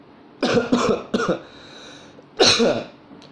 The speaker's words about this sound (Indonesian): kalau misalnya kalian dengar di suara gue ini aku apa aku ada batuk dikit